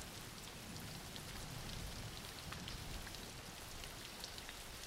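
Steady rain falls continuously, a dense hiss of drops pattering on surfaces with no break, fairly quiet and even throughout, with no voices.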